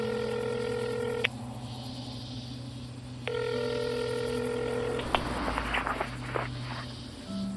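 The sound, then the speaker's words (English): Telephone ringing tones as someone calls the number etched on a cat's collar tag: two long, steady electronic rings separated by a pause, over a low background hum, followed by a few sharp clicks and rustling as the line connects. “You dial the number.”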